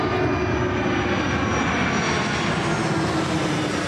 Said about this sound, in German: da kommt das nächste Flugzeug rein.